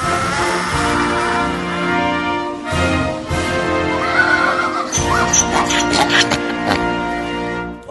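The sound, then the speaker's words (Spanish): A female donkey brays loudly and continuously for several seconds, a harsh, wheezing call that rises and falls in pitch with strained, raspy tones and brief gasping breaks. “¡Se te quedó la burra!”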